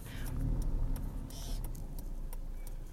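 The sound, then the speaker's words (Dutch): A car's engine idles in a low, steady rumble, with a few short clicks and scraping noises as the car creeps slowly, being parked into a parking spot, not very smoothly. “Ik moet gaan inparkeren en dat gaat niet heel soepel.”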